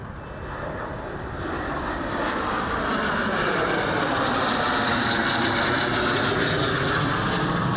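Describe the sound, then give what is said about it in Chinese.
Military helicopters and jets fly over in a National Day parade rehearsal at the Presidential Office: flag-carrying Chinook and Black Hawk helicopters pass slowly, with AT-3 Thunder Tiger jets trailing three coloured smoke lines. A loud, continuous engine roar swells over the first few seconds and holds steady, with a sweeping tonal whine shifting through it. No one speaks. “说的是挂着国旗的次努克直升机以及盘背的乌鹰直升机慢慢啊通过，上尾啊 AT 三雷虎小组后尾画出着三条彩烟。”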